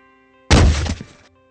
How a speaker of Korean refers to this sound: 뒤에서 뭔가 넘어지는 소리가 났습니다. 오씨! 뭐야? 놀란 저는 후레쉬로 이리저리 비치는데 아까 순찰 돌았던 매장 앞에 마네킹이 넘어져 있더라고요.